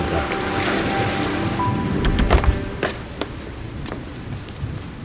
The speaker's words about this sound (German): Ein windiges Geräusch verscheuchte alles. Ein Sturm baute sich zusammen. Ich höre den Sturm.